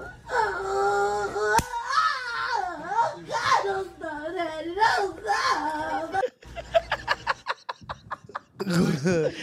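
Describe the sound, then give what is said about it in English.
Exaggerated, high-pitched moaning from a played video, with a wavering, sliding pitch, plays loudly for several seconds, then gives way to choppy bursts of laughter before a final moan. “What? the nerd glasses moan was that?”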